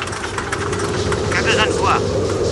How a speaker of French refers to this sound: J'ai peut-être surestimé un peu mon carburant, mais je vois la base d'ici et mon moteur droit marche, alors il ne devrait pas y avoir de problème.